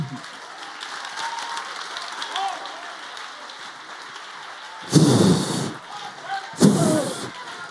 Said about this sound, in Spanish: Si le va a dar una aplauso.